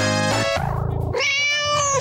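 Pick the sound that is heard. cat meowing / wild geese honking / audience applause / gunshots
cat meowing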